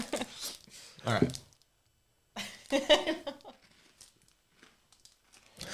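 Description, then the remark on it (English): A snack packet crinkles and rustles as it's pulled open, in two loud bursts separated by a short pause, followed by softer scattered crackles. “I don't know why it feels like we've made these snacks because I'm like, oh, I hope they like.”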